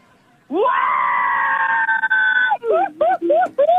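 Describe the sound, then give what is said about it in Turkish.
An audience, asked to shout as loudly and as long as they can, lets out a loud, sustained scream lasting about two seconds, then breaks into a few shorter rising yelps and shouts that taper off. “En yüksek bu kadar mı? En yükseği duyayım.”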